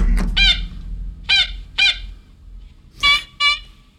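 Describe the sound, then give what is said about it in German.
A warning siren being tested sounds almost birdlike: five short, high, harmonic toots in an uneven rhythm, clear over a low background rumble, with no talking. “Wir haben der Stiftung Warntest beim Testen der Sirenen mal ein wenig über die Schulter geschaut.”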